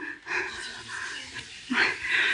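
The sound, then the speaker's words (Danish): An audience whispering all at once on request, a soft, breathy hiss of many voices that runs steadily for a couple of seconds and swells a little louder near the end. “Kan I viske i krone?”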